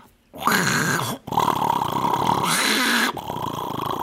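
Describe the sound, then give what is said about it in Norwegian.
A person vocally imitates a washing machine's groaning after it has finished spinning, making drawn-out, gravelly moaning sounds in several sustained bursts with brief pauses, fairly loud, with no other talk. “så har den laga noen stønnelyder, og så sier ja. det klikk.”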